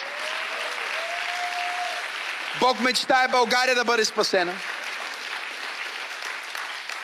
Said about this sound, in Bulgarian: Ръкопляски, ако вярваш.